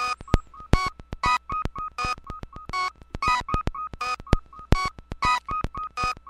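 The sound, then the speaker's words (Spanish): A barcode scanner sweeps over what seems to be a computer processor, producing a rapid, rhythmic stream of sharp electronic clicks interleaved with short mid-pitched beeps, loud, with no voices. “Ese otro sonido, este, que están oyendo, lo está haciendo con un escáner de, de código de barras y lo está pasando sobre un, no sé, creo que es como un procesador o algo por el estilo, ¿no?”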